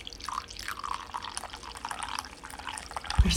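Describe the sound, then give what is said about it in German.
Coffee pours from a Bialetti moka pot in a thin, bubbly trickle with soft dripping and splashing, steady for a few seconds before a brief low thump at the end; no one speaks. “warte, du hast sogar, wie du aus dieser Bialetti rausschenkst,”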